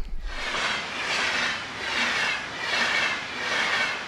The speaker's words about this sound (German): Der Bahnübergang in Kessenich am Rheinweg. Täglich rattern hier hunderte von Zügen entlang. Schnellzüge, Bummelbahnen oder auch Güterzüge. Der Lärm ist für die Anwohner ein lästiges Übel.